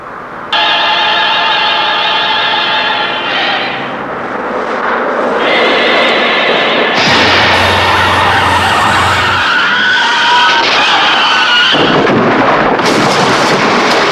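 Loud orchestral music with sustained, layered tones, broken about halfway through by a bright cymbal crash and a swelling full-band climax, then another crash near the end. No voices.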